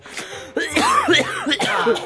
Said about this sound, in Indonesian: Batuk bro. Oh, iya, minum nih obat Kombi.